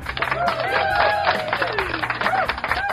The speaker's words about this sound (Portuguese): Senhoras e senhores, sejam bem-vindos ao Lenha Show Aplausos.